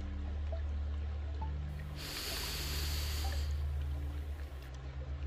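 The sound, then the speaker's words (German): A single long, deep inhaled breath, one of three deep breaths in a guided breathing exercise, airy, rising over a steady low droning hum for a few seconds before fading back to the background tone. “Wir nehmen jetzt drei tiefe Atemzüge und beim Einatmen spüren wir die Kraft der Verbundenheit von allen Menschen die gerade atmen.”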